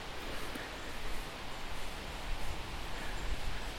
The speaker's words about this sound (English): Do you hear that? That's the sound of the wind in the trees, rustling the leaves. In the middle of this small forest that I'm in right now, there's a stand of birch silver birch. And that's the sound of their leaves.